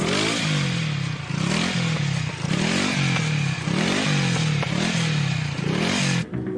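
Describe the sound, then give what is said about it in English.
A motorcycle engine sputters through a series of rough, rising revs, each surge faltering before the next, then cuts out near the end as it stalls. Loud, no voices. “Our motorcycle is stalled and we have to start all over again.”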